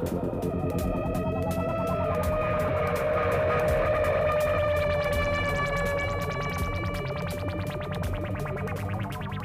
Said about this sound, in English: So that that little like you know that that, that synthesizer that's going yes, yeah like arpeggiator this is this yeah. is really really awesome i think in my personal opinion this was actually created by feeding an eight note sequence into this